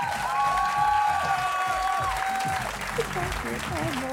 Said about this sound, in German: Applaus Juhu. Dankeschön.